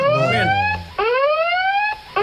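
A loud electronic siren wails on its own, its pitch sweeping upward in repeated cycles about once a second, like a school break signal.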